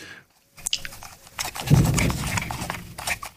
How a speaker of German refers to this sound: kann man das hören? Das Drehrad quietscht. Würde das jetzt, also wäre die, wäre die teurer gewesen, würde das Drehrad nicht quietschen und sie hätte jetzt eine unempörende Farbe.